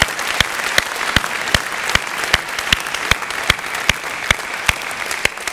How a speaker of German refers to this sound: durch einen wunderbaren Applaus.